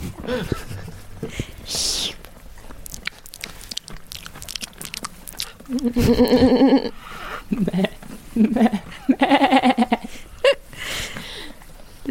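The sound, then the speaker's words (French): Irregular crunching and munching as ruminants chew their feed in a sheepfold, with several loud wavering bleats breaking in midway through. “ce que je prenais pour des sabots sont en fait les mouvements de mâchoire”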